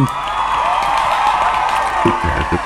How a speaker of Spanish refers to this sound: Un aplauso para nuestro invitado